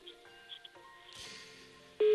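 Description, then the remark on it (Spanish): A telephone's electronic ring cuts in loud and steady near the end, after a stretch of faint, murmuring tonal background sound. “Suena el teléfono.”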